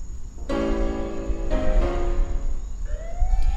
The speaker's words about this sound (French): La police arriva sans tarder, dans un concert de sirènes.